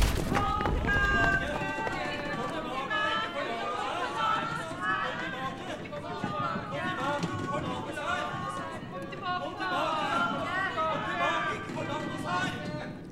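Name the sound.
crowd of people running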